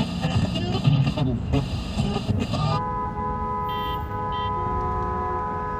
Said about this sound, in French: 10 heures, Grand Boulevard. Symphonie des klaxons.